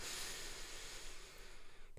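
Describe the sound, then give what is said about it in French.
A slow, deep, relaxed belly breath drawn in through the mouth, a steady airy rush lasting about two seconds, fairly soft, with no talking. “Mais au lieu de faire une respiration plutôt par le haut qui peut être euh, asphyxiante on va dire, euh, on va venir chercher une respiration plutôt décontractée avec une respiration par le ventre où on inspire”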